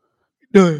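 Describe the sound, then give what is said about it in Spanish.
Silence, then a loud voiced yawn begins abruptly and is cut off after a brief moment, a single drawn-out vocal groan with no talking. “Uh, me metí un bostezo también.”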